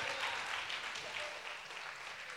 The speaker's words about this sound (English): Keep clapping. He, he's not here. Keep clapping until he comes up.